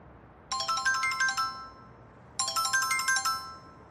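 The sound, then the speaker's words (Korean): A phone ringtone for an incoming call plays two identical bursts of quick electronic melody, each about a second long, separated by a short pause; clear over a faint background hiss. “홀로 나가봐야 할지 망설이는데 강은이에게 전화가 왔다.”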